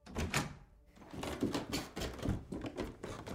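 A door is opened and shut, with a string of wooden clunks and rattles over a few seconds, fairly loud, with no voices.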